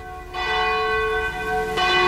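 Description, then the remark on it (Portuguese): The bell of the Cathedral of Nossa Senhora de Aparecida rings out loudly at ten and a half minutes to 22:00, with a sustained ringing tone that swells and is struck again near the end, its rich overtones lingering throughout with no one speaking. “Voltando 10 minutos e meio para as 22 horas, bate o sino da Catedral de Nossa Senhora de Aparecida.”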